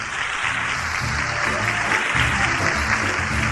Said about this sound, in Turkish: Onlara da kocaman alkışlayalım.